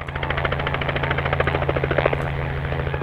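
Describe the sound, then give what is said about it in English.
A black helicopter roars overhead, its rapid rotor chop pulsing steadily and loudly as it sweeps past a herd of wild horses running across western Utah's high desert, trying to herd them into a corral on a hot mid-morning; no voices present. “black helicopter swoops past a herd of wild horses running across western Utah's high desert.”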